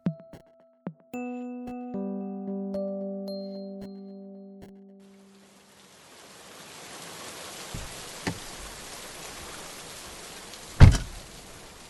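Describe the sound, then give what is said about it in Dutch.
A ringing electronic chime fades out, then heavy rain pours outside in a steady, dense hiss, broken by a few sharp thuds near the end. No one speaks. “Buiten regent het pijpenstelen, maar dat is niet erg”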